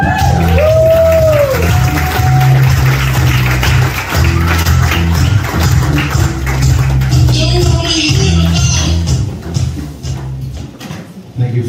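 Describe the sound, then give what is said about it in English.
A crowd cheers and applauds steadily for about eleven seconds as a performer is introduced, with a few whoops rising above the dense clapping and a pulsing low beat underneath before it thins out at the end. “Give it your loudest.”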